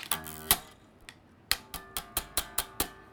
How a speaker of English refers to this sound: You can add a little bit of slap. What a slap is, you basically just hit against the strings like this.